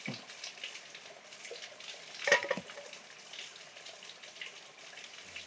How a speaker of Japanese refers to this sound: なんかこのせせらぎが聞こえる中でコーヒー飲むっていいっすね。いいですよね。